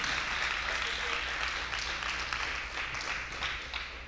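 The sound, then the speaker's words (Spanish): An audience bursts into sustained applause for God at an evening church service, a dense, steady wash of many hands clapping at once, slightly tapering toward the end, with a low hum underneath. “Da un aplauso al que está contigo cada día.”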